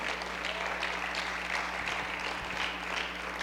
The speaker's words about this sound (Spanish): Pero si tú lo crees, aplaude al Señor fuerte.